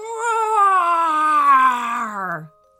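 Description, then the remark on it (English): A human voice imitates the roar of a large Carcharodontosaurus warning others to stay away: one drawn-out, strained growl about two and a half seconds long that slides steadily downward in pitch before cutting off. “The large Carcharodontosaurus saw them approaching and roared to warn them to stay away.”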